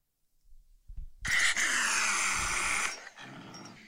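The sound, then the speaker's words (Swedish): An angry exotic cat lets out a loud, harsh growl, a raspy hiss-like snarl lasting about two seconds, followed by a quieter, lower grumble. “Det är en katt döpt till eh, Pumba. En exotisk katt”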